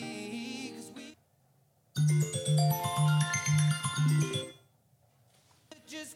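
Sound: phone ringing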